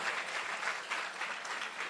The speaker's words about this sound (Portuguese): Você tem ideia, gente, que a gente chegou no último dia do ano? Sério, vamos aplaudir Jesus por isso.